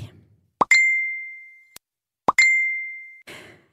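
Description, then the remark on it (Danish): A Messenger message notification sounds twice on a mobile phone: each time a quick pop followed by a bright, ringing ding that lingers for about a second. Both alerts are clear, with no talking. “Når du får en besked på Messenger, og når du alligevel har din mobil fremme”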